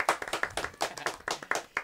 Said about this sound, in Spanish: Sí, un aplauso a Panadería Don David.